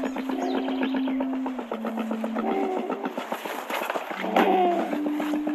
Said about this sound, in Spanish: Este es el sonido de una cóndora hembra en las montañas andinas.